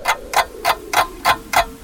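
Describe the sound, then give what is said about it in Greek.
A clock ticks steadily, six crisp, evenly spaced ticks about a third of a second apart, clear with no one speaking. “είναι σαν να σταματά το ρολόι σου νομίζοντα και ότι ο χρόνο σταματά.”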